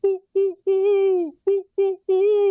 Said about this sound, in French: dans le bois, ça, c'est une chouette lapone.